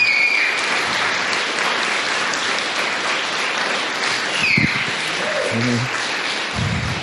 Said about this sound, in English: a big, big, huge round of applause.